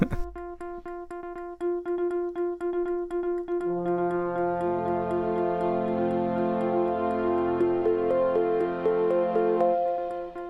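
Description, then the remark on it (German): A steady clock-like ticking runs throughout a 16-second idle loop played by a streaming server while nothing is being streamed. A gentle melodic jingle of sustained tones enters partway and builds into a looping tune, clear, with no voices. “die wird dann im Streaming-Server laufen, solange nichts gestreamt wird.”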